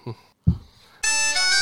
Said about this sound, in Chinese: 老段，你什么时候换了这铃声啊？ 这不是我们今天要录开端吗？